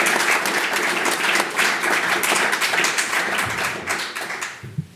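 Sustained audience applause, a dense crackle of many hands clapping at a steady level before thinning out and fading near the end. No one speaks over it.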